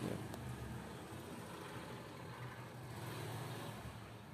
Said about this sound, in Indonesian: nasib nasib lu punya rumah di gang sempit ya ada motor lewat kenceng banget